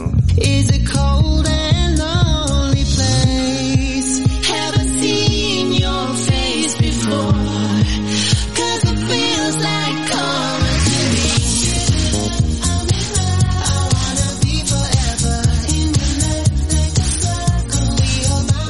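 A still-active artist's latest released pop song, sung as a duet, with a retro eighties feel plays loudly and steadily throughout, with a driving beat, pulsing bass and bright synth layers filling the mix, and no talking over it.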